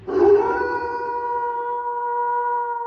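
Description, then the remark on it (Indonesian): A single long, steady wolf howl holds its pitch for nearly three seconds after a breathy onset, heard alone with no talking and a slightly echoing, eerie quality. “Ada bunyi serigala juga.”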